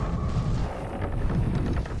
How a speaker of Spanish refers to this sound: Tras aquel grito, un majestuoso alerce dauriano de tronco tan grueso como las columnas del Partenón se desplomó sobre el suelo. Wen Chi sintió el temblor bajo sus pies.